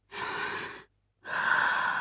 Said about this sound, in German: Deswegen atmen wir zwei, dreimal tief ein und aus.